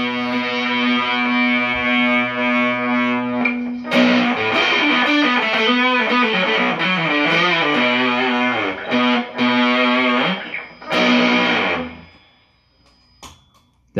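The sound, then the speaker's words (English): A heavily fuzzed electric guitar plays alone through a Scarab fuzz pedal set to sound like a Fuzzrite, first a sustained buzzing chord, then a busy run of gritty, saturated notes and chords, ending with a few isolated plucks as the tone fades. “I wonder if we could make this scarab sound like a treble booster. No, sound like a Fuzzrite.”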